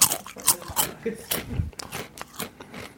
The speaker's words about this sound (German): Noch ein bisschen knusper zum mhm. Abschluss. Ja, wir haben hier heute ähm, Rosmarinchips.